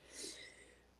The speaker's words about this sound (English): Bless you. Sorry. I'm allergic to my own makeup, I think.